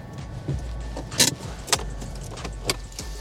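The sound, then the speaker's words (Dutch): A steady low car engine rumble runs throughout, punctuated by a few sharp clicks and a jangle of keys, as someone gets into a car and drives off toward Santa Park. “Ik stap in de auto en rij richting Santa Park.”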